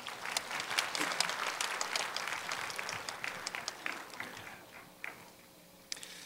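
An audience at the Daegu praise festival, a church event, claps steadily to welcome a pastor to the stage. The applause is a dense wash that gradually thins out, with a few scattered late claps near the end and no one speaking.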